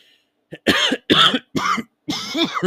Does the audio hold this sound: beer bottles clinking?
no